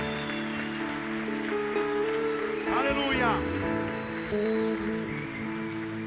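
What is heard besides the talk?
audience applauding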